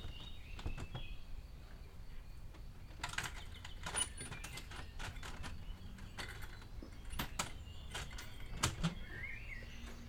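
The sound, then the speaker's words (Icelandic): A door is pushed closed with a few sharp clacks and knocks spread over several seconds, fairly quiet against a low background hum, with faint bird chirps now and then and no talking. “Fyrir varir tekur maður eftir þessu sjálfur og skellir á eftir sér til að komast inn í friðsældina.”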